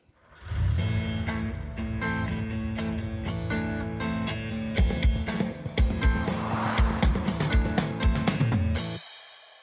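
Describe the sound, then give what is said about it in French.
A short musical jingle blended with a rumbling car engine, starting as a steady tonal drone and turning into loud, punchy revving bursts halfway through before cutting off abruptly. No talking. “Bienvenue dans Business en bagnole Jingle.”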